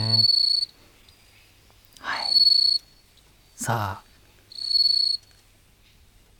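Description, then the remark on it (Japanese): Bell crickets (suzumushi) chirping in three bright, sustained high-pitched trills spaced about two seconds apart, clear, with short murmured voice interjections between the bursts. “はい、じゃあまず、はいはい、スズムシの音を聞いてください、うん、うん、スズムシ秋ですね”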